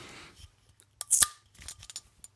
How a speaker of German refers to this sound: ja, das war tatsächlich eine Bierflasche, die ich mir gerade geöffnet habe. Leider kein bayerisches Bier, sondern ein Dithmarscher